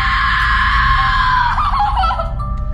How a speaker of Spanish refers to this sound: Mi tío, mi papá y yo nos quedamos un rato platicando afuera cuando de repente nos asustamos por un grito que soltó mi primo menor.